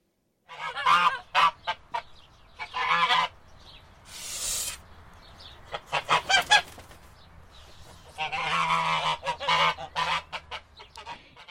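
A goose cackles loudly and repeatedly in noisy bursts of harsh honking, with brief pauses between the volleys and no talking.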